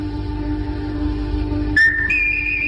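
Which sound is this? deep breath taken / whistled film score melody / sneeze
whistled film score melody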